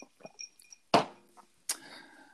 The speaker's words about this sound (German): Zu jeder Folge trinken wir ein Glas Wein. Und wenn ihr das, äh, hier das Rappeln hört, das ist äh, Wein auf Eis, Weißwein auf Eis.